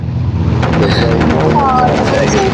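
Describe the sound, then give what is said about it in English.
A loud, steady engine drone from a low-flying plane on autopilot coming back through overhead, with a deep rumbling hum that holds throughout and faint indistinct voices beneath it. “Now the plane's coming back through. It's on autopilot.”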